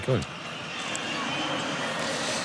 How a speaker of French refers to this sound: Et si vous l'entendez, la bronca du groupe Hamas Stadium. Ah, on écoute les sifflets nourris.